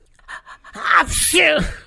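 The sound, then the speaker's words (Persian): A few short, breathy catches build up, then a single loud sneeze bursts out with a voiced, drawn-out tail. “آها جخت اومد جخت اومد بیا آقا جون لیوانو بگیر و حالا آب بخور مگه نمیگی بعد از عطسه نباید آب بخوری”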